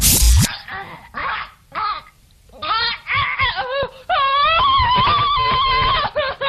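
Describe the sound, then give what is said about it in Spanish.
A woman's muffled moans as she covers her mouth while having an orgasm: a few short, breathy bursts, then longer wavering, sustained moans, fairly loud with no talking. “Es un gemido. De hecho, es una mujer que se tapa la boca mientras tiene un orgasmo.”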